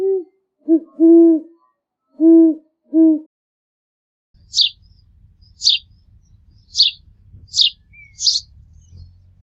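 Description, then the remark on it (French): An owl hoots in a rhythmic series of low, rounded calls, then after a pause a sparrow gives five short, bright chirps over a faint low rumble. “Les bonnes réponses dans l'ordre sont la mouette, le corbeau, le merle, le pivert, le hibou et le moineau.”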